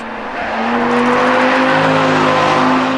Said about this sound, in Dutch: Het is ja, een V10-atmosfeer. Dat klinkt zo ontzettend mooi. dat, dat blijft echt een heel mooi motorconcept.